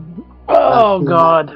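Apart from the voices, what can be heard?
throat clearing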